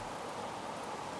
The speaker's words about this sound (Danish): Det er lyden af vadehavet.